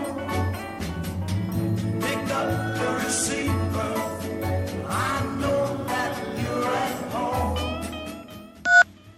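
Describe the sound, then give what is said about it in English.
A busy, tinkling phone ring tone plays continuously for several seconds, then stops and a single short, loud electronic voicemail beep sounds near the end. No one speaks. “Come on answer your phone, Answer your phone.”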